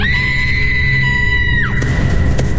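A girl inside a house lets out a long, sustained high-pitched scream that holds steady and then breaks off sharply, loud over a constant low rumble.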